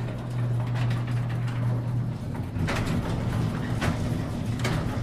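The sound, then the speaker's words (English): A steady low mechanical hum gives way to hissing, clunking bursts as heavy doors slide open, with several sharp metallic knocks in the second half, loud. “The doors, they're opening.”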